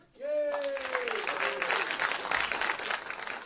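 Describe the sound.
An audience breaks into steady, lively applause that holds for several seconds, with a voice briefly calling out over the clapping at the start.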